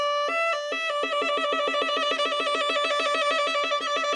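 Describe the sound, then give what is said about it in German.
A violin plays a fast, steady whole-tone trill, the player's second finger tapping rapidly on the fingerboard, two notes alternating evenly for several seconds, bright and sustained with no voices. “Das ist mein zweiter Finger, der schlägt da auf das Griffbrett und trommelt richtig drauf auf meiner Geige.”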